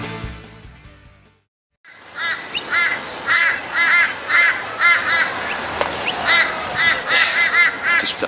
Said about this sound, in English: waiting for the uh, crows to finish.